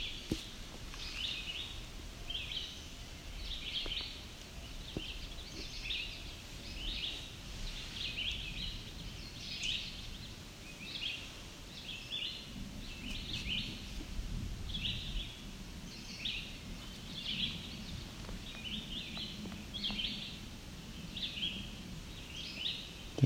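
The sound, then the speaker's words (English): A small warbler with chestnut sides, a little yellow on the head and white underparts gives a steady series of high, ticking calls and short song phrases, repeating every second or so over a low rustling, breezy background, in rocky ground with low-growing trees. “song can be fairly easily confused with a yellow warbler.”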